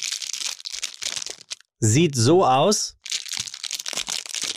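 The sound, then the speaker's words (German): Loud crinkling of the wrapper of a Koro Nussknacker walnut-fig snack bar, rustling steadily for a couple of seconds, pausing while a voice speaks briefly, then crinkling again to the end. “Das ist ein wunderbarer Walnussfeigeriegel.”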